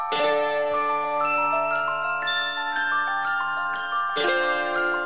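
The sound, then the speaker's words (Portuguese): Horror film soundtrack music plays on its own: sustained, overlapping tonal notes with a chiming, bell-like shimmer, steady and fairly loud, with a fresh swell of notes near the end. “Essa música é muito boa, o Adonis vai botar aí pra vocês ouvir”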